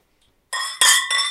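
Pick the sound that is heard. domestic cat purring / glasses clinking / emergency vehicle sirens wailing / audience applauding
glasses clinking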